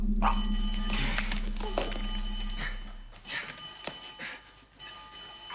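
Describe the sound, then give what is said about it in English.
A telephone bell rings in a series of shrill, jangling bursts separated by brief pauses, with a steady low hum underneath and no voices. “Answer that, please”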